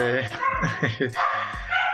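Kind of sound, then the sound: animal, dogs barking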